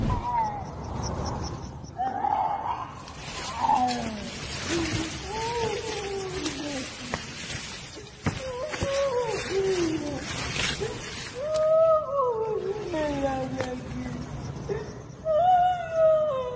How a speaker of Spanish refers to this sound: porque llegó de madrugada, escuchó el lamento de una mujer. No dudó en ponerse a grabar y pues escuchas demasiado, demasiado terrorífico. Te mando el audio, va, para que lo cheques.